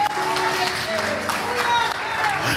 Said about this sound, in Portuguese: Não, aplauda direito aí. Não aplauda qualquer jeito, não. Aplauda direito porque é Deus, vocês estão aplaudindo